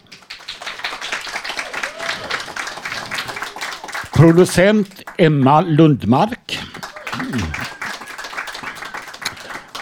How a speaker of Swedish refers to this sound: En applåd!